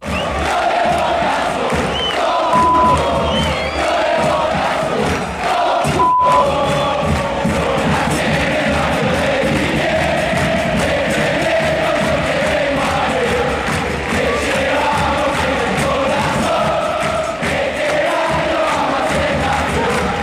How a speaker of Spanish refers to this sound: La que va a sonar ahora es la hinchada de Vélez, como les adelantamos. Sin embargo, cuando lo escuchen se van a dar cuenta que es un canto muy popular entre varios equipos.